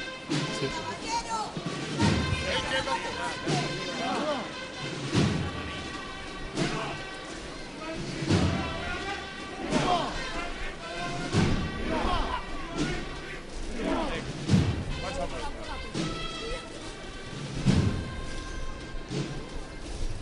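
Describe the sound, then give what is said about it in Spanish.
A marching band formed at Los Salesianos in Jaén, wearing Guardia Civil uniforms, plays a slow procession march accompanying the Santísimo Cristo de la Buena Muerte. Sustained brass chords carry the melody over steady, heavy drum beats and cymbal crashes that land every couple of seconds. “Y vamos a escuchar los sones que acompañan a este Santísimo Cristo de la Buena Muerte.”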